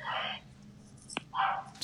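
A dog barks twice, with a short pause between the two loud barks, along with a brief sharp click in the gap. No one speaks.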